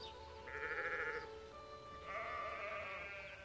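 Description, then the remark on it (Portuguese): Two drawn-out sheep bleats, one after another with a short gap, moderately loud, with no talking over them, in a reading of the children's book Maria vai com as outras by Silvia Ortoff. “Onde as outras ovelhas iam, Maria ia também.”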